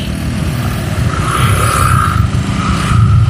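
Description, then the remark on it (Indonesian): Steady, loud engine rumble from cars and motorcycles idling and creeping along in a traffic jam on a narrow road, with occasional faint revving and a continuous low traffic drone throughout. “aduh ini macet nih ini paling gue potong juga nih kalau macet nih gue diam aja kalau macet nih ini jalan udah sempit”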